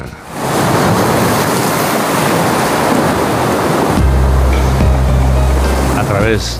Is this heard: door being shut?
no